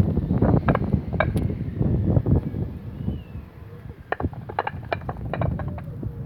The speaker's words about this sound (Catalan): Baldoses musicals.